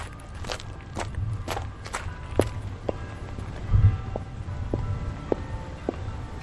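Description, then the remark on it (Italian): Footsteps walk at a steady pace along a cobblestone path that circles the garden of the magistral villa, each step a sharp, hard click, fairly clear against a low outdoor rumble. No one speaks. “Uscendo dalla villa magistrale e seguendo un sentiero di ciottoli che cinge il giardino, si raggiunge una chiesa”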